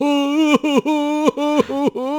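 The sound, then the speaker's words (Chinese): A voice imitates a baby's crying with about five drawn-out, wavering wails, each dipping at the end before a short break. The pitch sits fairly low for an infant, giving the cries a deep, odd quality. “对了，如果婴儿的哭嚎声音是，”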